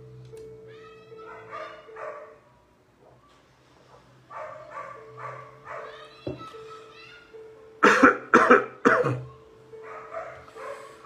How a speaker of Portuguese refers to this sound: Está aqui é o finalzinho de uma gripe, ficou uma tosse seca.